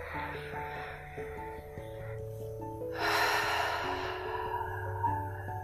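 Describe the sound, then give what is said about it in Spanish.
A single deep exhale through the mouth, a breathy whoosh lasting about a second and a half, over soft, steady background music. “Así que bueno, te voy a pedir que tomes una respiración profunda y exhales por boca.”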